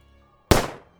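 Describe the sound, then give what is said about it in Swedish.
A single pistol shot cracks out loud after a moment of near silence, its sharp blast fading quickly with a short echoing tail. No one speaks. “Första missar, skjut igen”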